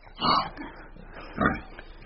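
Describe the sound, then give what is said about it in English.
A pig grunts twice as it comes through the trees, two short, low, snuffling bursts about a second apart, against a quiet outdoor background. “Oh, here he comes through the trees. Right. I can hear him.”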